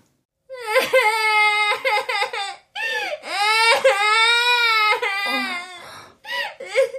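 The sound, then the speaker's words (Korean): A young girl, a younger sister, wails and sobs loudly in a room, long drawn-out cries broken by short gasping breaths, continuing for several seconds with no other sounds. “방문을 열어보니 여동생이 목 놓아 울고 있었다.”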